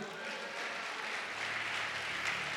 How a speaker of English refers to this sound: Clap for Jesus again.